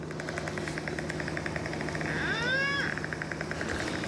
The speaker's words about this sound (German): Also hier taucht jetzt unter und hier haben wir die Schallaufnahme im Spektrogramm, hier die Echoortungsklicks, die kommen alle 100 Millisekunden.